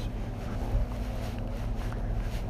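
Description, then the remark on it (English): Steady outdoor wind roars and buffets across a golf course, a constant low rumble with no pauses and no one speaking. “In these windy conditions.”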